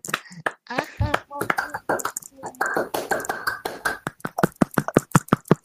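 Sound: hand clapping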